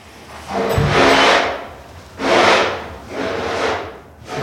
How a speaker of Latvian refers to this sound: Remontdarbus sadzirdu arī citos ēkas stāvos.